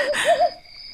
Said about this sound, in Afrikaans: Die uil. Hoor jy dit? Ja, dit. Ek hoor.